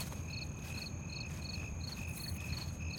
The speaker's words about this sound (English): are the mics picking up the crickets?